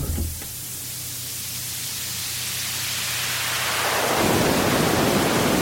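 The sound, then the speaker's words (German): Steady filtered noise with a low rumble, like a light thunderstorm, gradually opening into a brighter, fuller rushing hiss that grows slightly louder toward the end, with no voices. “immer noch ein leichtes Gewitter drin. Dann gehen wir wohl mal auf 250 Hertz.”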